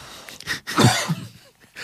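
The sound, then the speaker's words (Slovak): A rough cough bursts out once, with a throaty clearing edge, followed by a short breath and quiet; no one speaks. “Ak sa to kašlanie nezhorší, Aha, no.”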